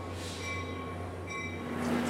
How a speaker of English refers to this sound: we're standing here at the Hoboken train station in Hoboken, New Jersey